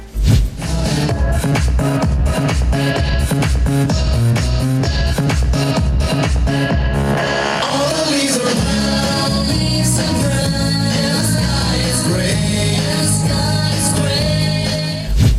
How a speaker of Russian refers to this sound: И пока организаторы подсчитывали минуты, секунды, кто же стал победителем в той или иной категории, диджей крутил пластинки, и были даже те, кто пританцовывал под палящим сочинским солнцем.